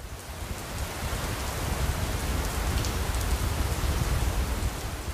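Steady rain falls outside the Listen Chain Sky Lounge on the 9th floor of the Marius in a dense, continuous hiss with soft patter, fairly loud, holding evenly for the whole stretch with no voices.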